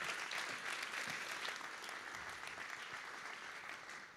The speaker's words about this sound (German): Vielen Dank, das ist dein Applaus. Vielen Dank, dass du es uns erzählt hast.